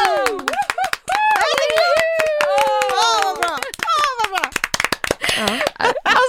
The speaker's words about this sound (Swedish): Okej, okay, och så, så tar vi en applåd också till eh, dem, så kan man göra det som ringsignal också, ja. när vi har ner 30 plus 3 applådera, okej? Okay? Ah. Redo? 3, 2, 1.